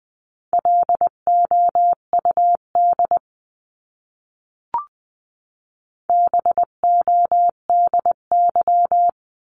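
Morse code tones beep out a word in quick dots and dashes at 18-20 words per minute, a steady mid-pitched tone keyed on and off, then a pause with a faint click before another word is sent.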